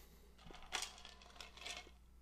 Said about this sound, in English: Y'all hear the cup?